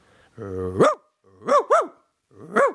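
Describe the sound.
A person imitates a dog, starting with a low growl that rises into a bark, followed by a quick double bark and one more bark, loud with short pauses between.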